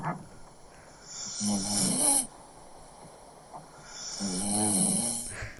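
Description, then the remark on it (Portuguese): A baby aged one year and one month snoring in two long, rasping inhalations separated by a quiet pause, each with a buzzing, throaty rattle that swells and fades. No one speaks. “Ele tem um ano e um mês. E ressona já assim.”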